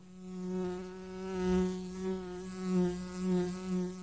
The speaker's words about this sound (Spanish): Este es el zumbido de la abeja de Andes Origen Miel una cerveza con gustito a miel del monte.